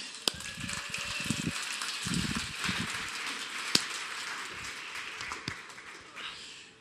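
A crowd claps steadily for several seconds to welcome a guest speaker, a dense crackle of many hands with a few sharper claps standing out, before it thins and fades at the end.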